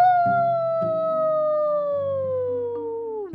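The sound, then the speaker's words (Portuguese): A loud, drawn-out moo voiced by a person imitating a cow, one long call sliding slowly downward in pitch, with soft background music underneath. “Então a criatura olhou para, para a mimosa e. Mu!”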